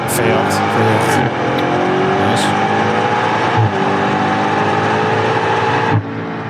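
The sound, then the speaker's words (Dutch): An M5 sports sedan engine roars loud as it accelerates hard from launch, its pitch climbing steadily with brief dips at gear changes around every two to three seconds. “Dit gaat wel langzamer dan jouw launch control volgens mij het gaat wel beter.”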